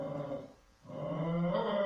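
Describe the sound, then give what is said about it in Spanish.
A small schnauzer-like dog growls at an empty armchair in two low, rumbling bursts separated by a brief pause, fairly loud, with a slightly whiny edge toward the end. “Pero le gruñe y ya, se calmó.”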